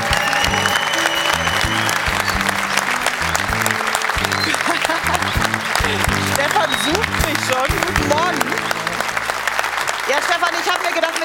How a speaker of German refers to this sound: kriegt aber einen Applaus wie immer, der sich zumindest mit dem von Stefan Effenberg messen kann.